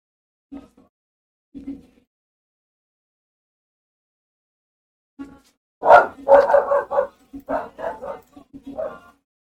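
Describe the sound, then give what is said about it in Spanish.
A dog barks twice with pauses between, then breaks into a rapid, loud run of yapping barks and whines lasting several seconds. “Ese perro defiende a todo el mundo menos a mí, güey.”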